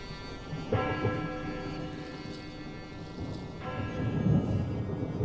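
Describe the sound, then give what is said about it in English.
Low, rolling thunder from gathering storm clouds rumbles steadily throughout, swelling again toward the end, with the sustained ringing tone of a bell tolling from within the town of Anfer sounding over the rumble for a few seconds. “It moved quickly, keeping ahead of the gathering storm clouds, and slipped onto the muddied road just as a bell began to toll out from within the town.”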